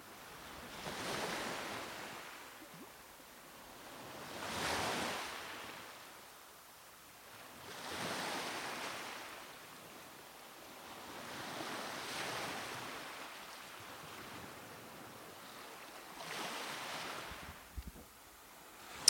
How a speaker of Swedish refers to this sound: Vågor.